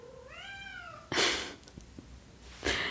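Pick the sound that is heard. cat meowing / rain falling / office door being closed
cat meowing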